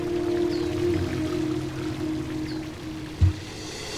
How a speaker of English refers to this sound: switch on the back of the fountain and the monument burst to life. Water came gushing out of the most surprising places fingers and mouths, shovels and eggs. The magnificent geysers cascaded down the metallic statues and into the bubbling pool below.